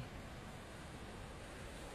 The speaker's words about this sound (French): Des vagues de détente. Et déjà, c'est comme vous évader au bord de la mer, à écouter les vagues